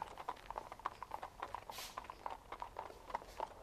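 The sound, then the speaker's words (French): Horse hooves of the Republican Guard crunch steadily on the gravel of a courtyard, a continuous uneven clatter of many steps, fairly quiet with a soft hiss of grit under each footfall. “C'est quoi ce, bruit Il pleut La garde républicaine, sur le gravier de la cour.”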